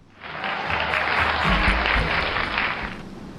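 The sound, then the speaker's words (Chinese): Steady studio audience applause on a live quiz show, welcoming two young contestants back on stage, a dense crackle of many hands clapping that swells in quickly and holds at a fairly loud level for about three seconds before easing slightly, with no one speaking. “我们接下来掌声有请两位小选手再次闪亮登场。”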